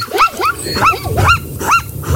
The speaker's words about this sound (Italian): Forse questa è una zebra non binary, né bianca né nera. Ma c'ha uno sfiato, tipo.